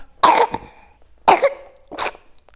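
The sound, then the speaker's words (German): A baby coughs three times in short, separate bursts, fairly loud, with small squeaky tones trailing the first two. No one is talking. “Baby hat gehustet.”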